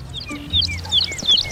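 A bird sings loudly, a rapid run of bright, shrill chirps and whistled notes repeating without pause over a low, steady background rumble.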